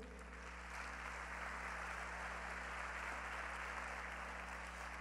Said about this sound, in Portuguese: Você pode dar uma salva de palmas para Jesus?